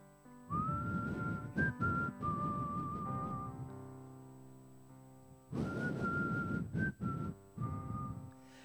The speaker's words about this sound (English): And suddenly, out of one of these trenches, a little voice started singing. Whistling.